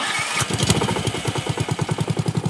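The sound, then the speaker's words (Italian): A small two-stroke hedge trimmer engine sputters and runs in a steady, pulsing rhythm, loud, with no voices over it, as a man cuts a hedge. “perché se apro la porta per far entrare l'aria condizionata si sente il tizio che taglia la siepe.”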